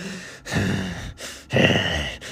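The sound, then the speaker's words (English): A voice mimics angry huffing and puffing: forceful, breathy exhalations in a steady rhythm of about four bursts, fairly loud, with brief gaps between each puff. “He starts hearing like a huffing and puffing noise behind him.”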